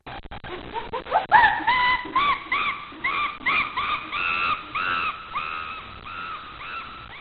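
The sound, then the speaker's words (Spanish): A chimpanzee gives a rapid run of shrill, harmonic calls, starting with short rising hoots and building into loud, repeated screeching bursts, with no talking over them. “Es igual que o todos los sonidos que aparece es el casi omnipresente sonido del chimpancé.”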